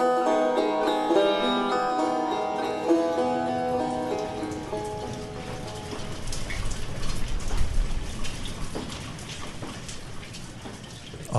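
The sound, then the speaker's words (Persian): Rain patters steadily against a shop's lowered metal roller shutter while rain falls on and off, a dense drumming of drops that builds after a soft tonal, music-like sound fades out in the opening seconds. “آسمان مضطرب بود لحظه میبارید و لحظه ای سکوت میکرد صدای برخورد قطرات باران با کرکری فنزی در دوباره جان گرفت”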